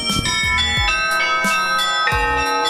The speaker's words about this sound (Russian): А еще на башне располагается звонница, на которой устраивают колокольные концерты.